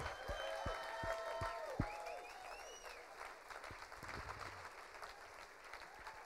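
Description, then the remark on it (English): An audience at the Suntec City convention center applauds the Lord together in a dense, sustained burst of clapping with a few cheers and whoops rising over it, gradually thinning toward the end. “Oh, come on, give the Lord a big clap.”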